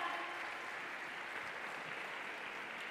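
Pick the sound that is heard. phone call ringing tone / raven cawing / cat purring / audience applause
audience applause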